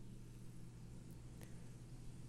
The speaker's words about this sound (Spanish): Entonces aquí es que está pasando un coche y hace mucho ruido, en fin.